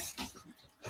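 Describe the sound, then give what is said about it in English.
Dogs making brief noises, a few short muffled yips, ending in one sharper, louder bark-like burst, heard faintly with no talking. “Sorry about the dogs again.”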